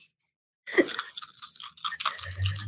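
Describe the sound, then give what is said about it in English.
After a brief silence, dice rattle rapidly in a cupped hand or cup, a dense run of clicking, clattering bursts lasting about two seconds, with a faint low hum underneath toward the end. The dice are rolled for a composure plus persuade check. “Come on, dice.”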